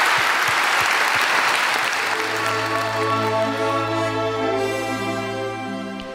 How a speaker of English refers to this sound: Thank you so much for your contribution. Lots more ahead, but let's give you a grand round of applause.